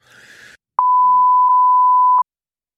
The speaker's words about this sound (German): Wollte nicht genannt werden, okay, überspringen wir hier mit einem Piep gleich den ihr jetzt schon gehört habt.